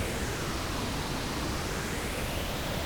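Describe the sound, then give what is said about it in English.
Steady pink noise with a slow phasing sweep from a sweep oscillator, a faint whooshing comb-filter shimmer gliding up and down as it drifts in and out of phase, moving from the left ear into the right. It is continuous and even in loudness, with no voices. “this works really well with headphones on um, there's kind of a subtle movement between them as they go into and out of phase. Bring that down to like seven, so you can hear a little bit.”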